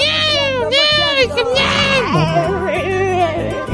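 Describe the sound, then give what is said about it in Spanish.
A human voice imitates yowling cats in heat, producing drawn-out, wavering wails that rise and fall in pitch like a crying baby, loud over nearly four seconds. “Parecen niños, niños este, mutantes llorando, me cae.”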